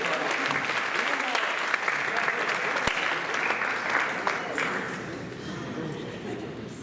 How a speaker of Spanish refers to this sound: Las suegras son buenas, hermanos. Démosle un aplauso a las suegras, hermanos. Démosle un aplauso.